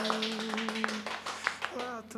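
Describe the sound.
Audience applause: steady, rhythmic claps that come in quick regular bursts, heard over a sustained voice or tone that runs beneath them.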